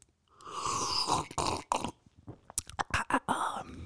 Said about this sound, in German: Ich freue mich sehr, dass ihr diesen Samstag mit mir verbringen wollt und eine Tasse Kaffee mit mir trinkt. Pass mal auf, hier schlürfe ich jetzt. Und hol vorher einmal Luft.